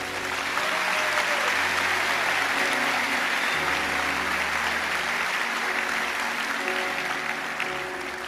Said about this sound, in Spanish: Démosle un fuerte aplauso a Él.